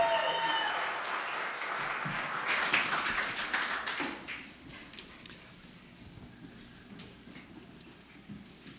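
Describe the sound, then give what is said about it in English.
At a church, a crowd claps loudly for a pastor being introduced, a dense burst of many overlapping hand claps that swells and then thins out into scattered, softer clapping as it fades. “So give him a big redemption round of applause”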